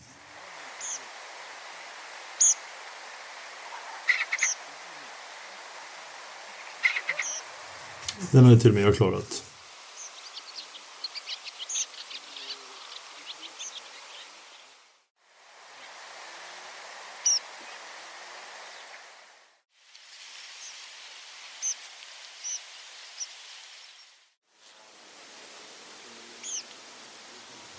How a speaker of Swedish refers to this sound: Men eh, jag har gjort ett par stycken olika snabba korta kompilat. Eh, ska vi börja med att lyssna på de säkra träpipläkerna?